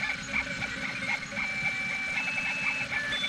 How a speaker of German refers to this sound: Ja, ähm, ich, ich drucke gerade was mit dem 3D-Drucker aus. Kannst du ja mal angucken.